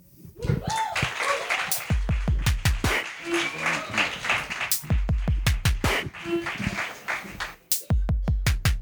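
With the house lights lowered, an audience gives a loud round of applause for the day's guest of honour: a dense, continuous patter of clapping that runs throughout, mixed with a rhythmic music track whose deep thumping beats come in short repeated bursts.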